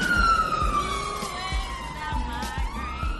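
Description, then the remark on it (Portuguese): A fire truck siren wails past, its tone sweeping downward and then back up with a Doppler drop, loud over a low engine rumble. “Eita, tá passando o caminhão dos bombeiros aqui, peraí.”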